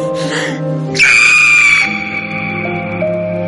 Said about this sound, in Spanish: Ella grita de modo desgarrador mientras alumbra a su hijo.